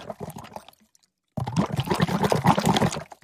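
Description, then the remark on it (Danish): Liquid poured from a plastic bottle into a glass: a brief splashy pour, a moment of silence, then a longer, louder, steady gurgling pour. “Du skal hælde over i, Nej, nu, i et glas.”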